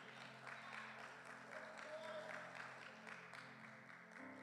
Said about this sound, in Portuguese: Você pode aplaudir Ele novamente, aleluia.